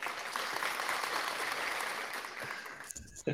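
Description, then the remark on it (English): A burst of dense crowd applause, played as a sound effect, steady and fairly loud for about three seconds before cutting off abruptly, with a brief rustle at the end. “A special applause.”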